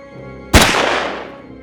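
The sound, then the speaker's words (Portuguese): A single sharp gunshot cracks out suddenly and loudly in Hitler's personal bunker, followed by a long reverberant decay that fades over about a second; Hitler is shooting himself in the mouth. No voices are present. “Então ouviram um disparo no bunker pessoal de Hitler.”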